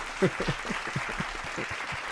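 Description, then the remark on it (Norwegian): Audience applause, a steady patter of many hands clapping at moderate volume, with a brief louder burst near the start and no voices heard. “Takk til vårt fantastiske publikum.”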